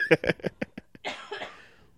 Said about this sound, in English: i'm still a little bit sick so if you hear random coughs in the background that's me and i'm very sorry